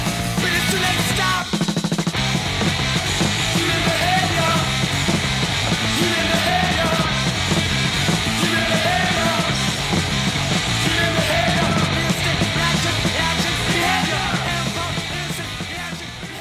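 A loud, dense hardcore punk song plays with distorted guitars, driving drums and shouted vocals, staying at a steady, unrelenting level from start to finish.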